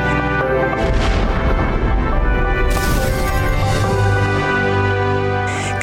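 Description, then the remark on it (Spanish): A loud, continuous roaring rumble of an explosion and fire on the Deepwater Horizon semi-submersible deepwater oil drilling platform at BP's Macondo well in the Gulf of Mexico, with dense low booming and a sharper burst of crackling noise partway through. No one speaks. “Deepwater Horizon, la plataforma petrolera semisumergible para perforación en aguas profundas del diseño más avanzado del mundo, operaba en el pozo Macondo de British Petroleum en el corazón del Golfo de México cuando ocurrió una explosión.”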